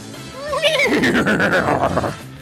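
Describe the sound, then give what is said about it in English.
A horse neighs loudly, a single long whinny that rises sharply, then wavers and trembles as it falls away over about two seconds. “Sounded more like a Bronco.”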